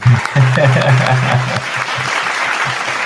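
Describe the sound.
A crowd claps steadily in a dense, even wash of applause lasting a few seconds, with a low voice briefly audible underneath at the start.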